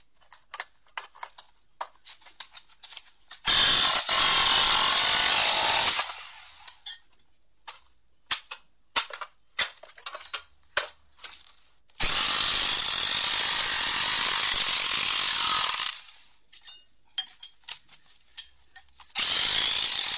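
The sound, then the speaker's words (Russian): Workshop tool noise while an electric motor is being taken apart: sharp metallic clicks and clanks of a ratchet come in irregular bursts, broken up by three loud, harsh whirring power-tool runs of a few seconds each. No one speaks. “Как разбирают а... электродвигатель?”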